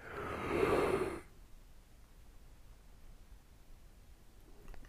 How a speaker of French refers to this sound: Là, je viens de bailler.